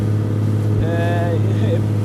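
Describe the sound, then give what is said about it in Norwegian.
A motorboat engine drones steadily, a constant low rumble that never lets up, with a voice briefly speaking over it partway through. The boat is a bright yellow Norwegian Directorate of Fisheries boat heading out into the Oslofjord, searching for Freia. “Nå er vi på vei eh, ut i Oslofjorden i en helt gul båt fra Fiskeridirektoratet, og vi jakter på Freia.”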